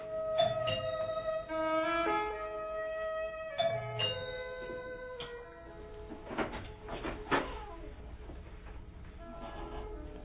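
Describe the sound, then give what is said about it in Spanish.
An apartment doorbell chimes twice, a few seconds apart, each ringing tone sustaining and slowly fading, followed by quieter background noise with a few soft knocks and rustles. “Toqué el timbre del departamento 4.”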